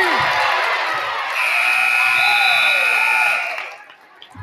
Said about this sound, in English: at the end of the half hits a three uh, as the buzzer goes off.